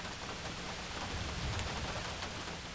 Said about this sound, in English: And then finally, after passing out, he hears rain on the outside of the spaceship.